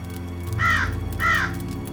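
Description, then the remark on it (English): A raven gives two harsh, croaking caws about half a second apart, loud, over a low steady background hum with no voices. “But the raven sitting lonely on that placid bust, spoke only that one word, as if his soul in that one word he did outpour.”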